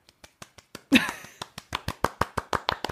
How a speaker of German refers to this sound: Ja, großen Applaus und herzlichen Glückwunsch an die Gastro an der Stelle.